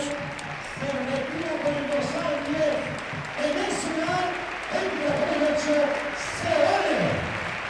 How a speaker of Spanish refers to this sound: Los aplausos para el futbolista otomano, que ya lleva 10 tantos esta temporada con el Getafe Club de Fútbol.